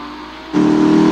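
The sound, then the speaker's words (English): A car engine revs hard, jumping abruptly from a steady drone to a louder, higher roar as it accelerates, continuous with no voices. “You are liable for any damages to the vehicle, so please stop the car, slow, or at least slow down.”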